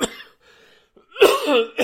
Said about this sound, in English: This COVID stuff is, I tell you, it's wearing down on me. This constant cough that I have